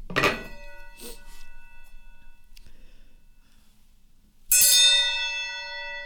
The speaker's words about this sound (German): Willst du, willst du Gong für Kategorie 2? Ja, gerne.